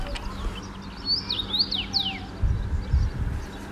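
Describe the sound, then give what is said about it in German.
A finch perched at the top of a tree in a garden, backlit in blazing heat, sings a short series of bright, sweeping whistled notes, set against a low steady rumble of background noise. “Und dann sah ich da so einen Finken sitzen, so im Gegenlicht, der das eben sang, so von der Baumspitze”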